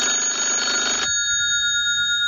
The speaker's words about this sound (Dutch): Oh, telefoon, telefoon, telefoon, telefoon, telefoon, telefoon, telefoon, telefoon, telefoon, telefoon, telefoon, telefoon, telefoon, telefoon.